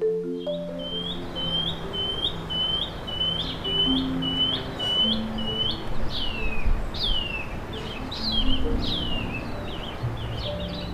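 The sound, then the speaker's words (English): A shining cuckoo, a small greenish bird, sings in a town belt in New Zealand: a long run of high, rising whistled notes repeated at a steady pace, later shifting to falling slurred whistles, over a constant low rumble of background noise. “This is the song of the shining cuckoo, a small greenish bird that's travelled all the way from the tropics to spend the spring in New Zealand.”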